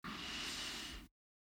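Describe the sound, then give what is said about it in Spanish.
A single deep breath drawn in through the nose, the first of three inhalations in a guided breathing exercise, a steady airy rush lasting about a second, then it cuts off into silence. No one speaks. “1, inhala.”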